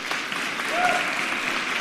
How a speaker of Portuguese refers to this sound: Ó, batemos o um recorde aqui, 51 mil pessoas. Agora é uma salva de palmas, tanta gente aprendendo isso.